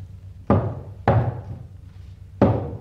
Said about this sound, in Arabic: ذهب الى العصابه وبه ما به من الوجد والصبابه ووقف يطرق البوابه